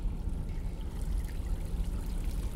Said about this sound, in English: It's getting louder. There's a waterfall, and you're going to walk towards it.